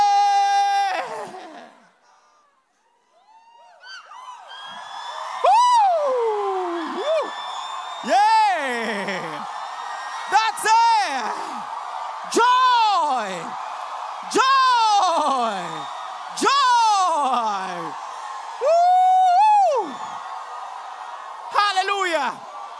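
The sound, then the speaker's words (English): A single voice lets out a string of loud, excited, joyful whoops and screams, about eight rising-and-falling cries in quick succession, energetic after a brief opening call and pause. “Have you been so joyful you just started screaming?”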